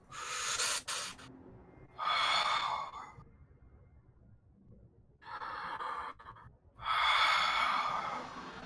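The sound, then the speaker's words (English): Slow, heavy breaths rasp in and out from a creature sitting in a pit, four long airy exhales and inhales with short pauses between them, loud with no other sounds. “and you realize there's something sitting in this pit that is breathing and actually sticking out of its back or what you think is its back are these huge red crystals”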